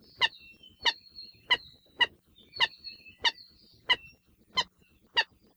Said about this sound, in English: The alaiula's voice can be described as a series of chicken like cackling calls and croaks, and has traditionally been considered by some to be a bad omen.